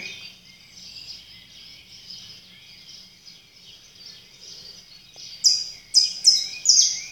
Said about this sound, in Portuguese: E é isso que eu aprecio em mim quando eu ouço os sons da natureza, os sons dos pássaros, não resistência.